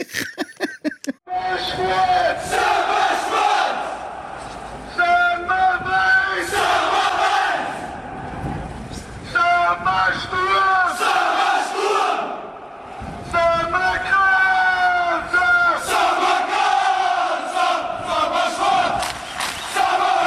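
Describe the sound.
A large crowd of football fans sings a club chant in unison, loud and rhythmic, the many voices rising and falling together with brief pauses between phrases.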